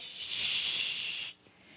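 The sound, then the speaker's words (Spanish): A voice imitates radio static with a steady, bright hissing rush held for just over a second, then cutting off abruptly into quiet. “es como si fuera un canal lleno de interferencia.”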